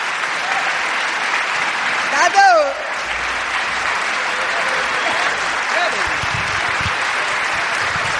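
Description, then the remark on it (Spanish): Sustained, dense applause from a crowd fills the whole stretch at an even, strong level, with a brief whistle-like rising tone and a few cheers cutting through near the start. “Fuerte aplauso.”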